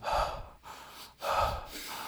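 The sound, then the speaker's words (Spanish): A person imitates heavy, bull-like snorting breaths, two loud rough exhale bursts with a quieter noisy intake between them, with no talking. “Que tú crees que estás en silencio y el de al lado está respirando así. Ajá. Como toro, güey.”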